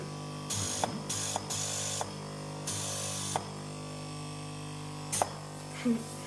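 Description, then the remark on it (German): A cold-air compressor, a kind of blower, drying special adhesive on electrode wiring in a sleep lab at the Rudolf-Virchow hospital in Berlin-Wedding, hisses in several short bursts, each lasting under a second, over a steady mechanical hum, with a few faint clicks in between and no one speaking. “dann gibt es einen Spezialkleber, der gleich angetrocknet werden muss. Das ist so eine Art Kaltluftkompressor oder auch Föhn.”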